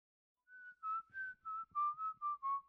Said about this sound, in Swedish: När han hörde sin hyresvärd vissla utanför fönstret medan han vattnade sina älskade omhuldade blommor gnisslade Greg tänder medan han försökte behålla sitt lugn.